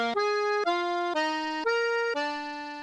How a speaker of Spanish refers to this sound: Se oyen los acordeones.